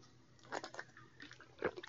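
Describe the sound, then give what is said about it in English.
Quiet mouth sounds of someone drinking water during a break: a few wet sips and swallows in quick succession, with no talking. “Quit water break.”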